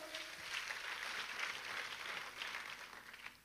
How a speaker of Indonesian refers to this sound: Kita kasih tepuk tangannya yang paling meriah buat Tuhan kita.